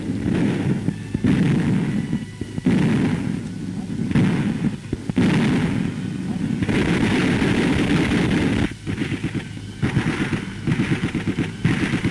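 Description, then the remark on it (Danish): Dense, continuous battlefield din of artillery and gunfire, with heavy booms and crackling shots overlapping in a loud, rumbling wash on an old British newsreel soundtrack from the battlefield near Alicante as the insurgent army fights toward Barcelona, with a voice faintly mixed in. “det vi hørte her, det var en britisk reportage ved slagmarken ved Alicante”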